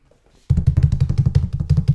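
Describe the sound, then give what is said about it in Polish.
After a moment of near silence, a loud, rapid drum roll bursts in for the announcement of the Dog of the Year 2019, a steady stream of booming hits rolling on continuously until the end. “Nie wiem, czy słychać, że są bębny.”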